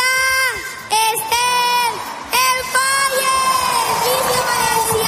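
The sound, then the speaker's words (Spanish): A large crowd in Valencia roars and cheers together, with high-pitched shouts and whoops rising in repeated surges, loud, a collective battle cry marking the start of the Fallas festival. “Es el grito de guerra que marca el inicio de las fallas mañana ya con la primera mascleta desde la plaza del ayuntamiento”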